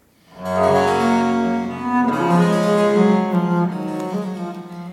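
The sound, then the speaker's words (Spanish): A bright harpsichord, a keyboard instrument whose strings are plucked by a nail-like quill, plays a flowing arpeggio, its notes ringing together in a dense, buzzy, guitar-like shimmer at steady volume for several seconds, with no voices. “Sí, parece una guitarra, sí. Y ese es el clavecino.”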